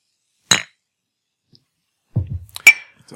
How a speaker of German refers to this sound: ich äh, für meinen Teil ein Glas und eine Flasche aneinander schlage